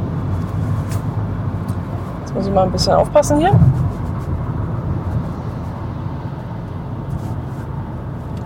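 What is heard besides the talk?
car interior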